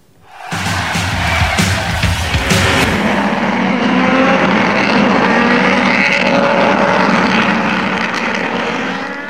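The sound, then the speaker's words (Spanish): Loud, continuous engine roar from Turismo Carretera racing cars in the final at Rafaela, won by Mariano Werner, a dense sustained drone of several engines with rising and falling pitch, crowd noise faintly underneath, no speech. “Ahora sí, la final del turismo de carretera en Rafaela con la victoria de Mariano Warner.”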